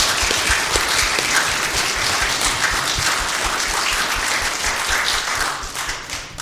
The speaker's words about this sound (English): Let's give God. Round of applause.